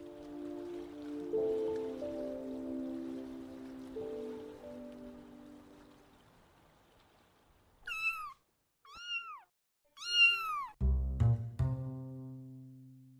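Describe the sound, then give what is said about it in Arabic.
A cat named Mozart meows three times in quick, rising-and-falling calls, fairly loud, followed by a deeper drawn-out cry, after several seconds of soft, muffled background sound. “قط موتسارت وهو من فصيلة السنوريات الغائبة الضمير لا يريد أنه يعطيني أي مؤشر بأنه سرق منبه الساعة”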